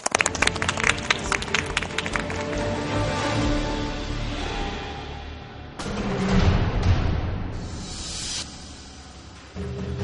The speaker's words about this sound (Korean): 네. 네, 네 그럼 박수로 강의 시작하겠습니다.